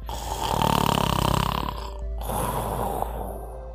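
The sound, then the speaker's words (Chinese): A voice imitates snoring: a long, raspy, buzzing inhale for about two seconds, then a softer, breathy exhale, loud and without any words. “亚马瑞也跟着打起了哈欠，不久他就打起了呼噜。”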